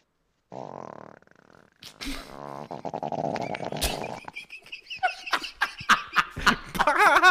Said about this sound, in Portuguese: O peido porcacho.